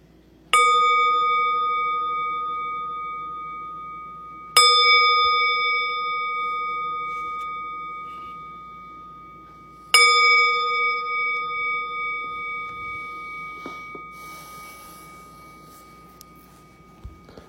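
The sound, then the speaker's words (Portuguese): A meditation bell is struck three times to begin a Buddhist meditation, spaced several seconds apart, each clear metallic tone ringing out and slowly fading with no voices. “E a gente vai convidar o sino a soar três vezes para começar e uma vez para terminar.”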